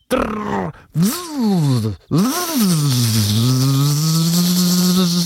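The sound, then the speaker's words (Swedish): A voice imitates an insect's buzzing wings, which beat up to 200 times per second: two short swooping hums, then a long, steady drone with a rough, vibrating edge. Nothing else is heard. “Det är därför de låter sådär. Det måste ju vara vinghastigheten man hör typ.”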